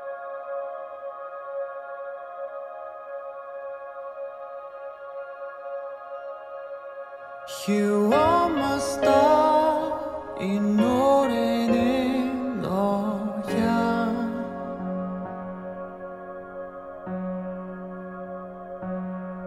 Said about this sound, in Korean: 마지막 곡 들려드리면서 인사를 드릴게요.